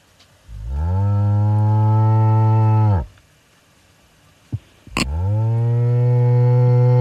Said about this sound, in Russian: пожалуйста, звук коровы. О, видишь, как профессионально?